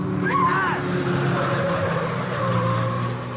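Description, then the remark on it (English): The engine of a low black sedan roars loudly, with a brief squeal of tires early on as it swings around a corner at speed, the engine noise staying steady and heavy throughout. “Just as they start across the street, a low black sedan swings around the corner and heads for them fast.”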